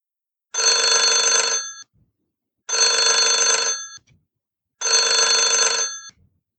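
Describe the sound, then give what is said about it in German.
A telephone rings three times in a steady pattern, each bright, buzzing ring lasting just over a second with short pauses between. It is fairly loud, with no voices. “ist nicht nur der Draht, der heiß ist, sondern auch noch der Draht zwischen Klotwegs und Haralds Telefonleitung.”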